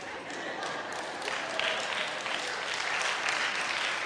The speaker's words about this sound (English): Why is it that only moms are clapping right now?